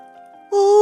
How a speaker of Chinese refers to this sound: 河马一下子大大的打了一个哈欠。